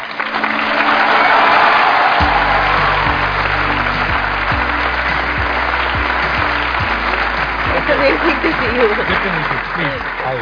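A crowd claps loudly and steadily to welcome a guest arriving from backstage. The dense applause holds its level throughout, while low musical tones pulse underneath with regular beats and a brief melodic line near the end.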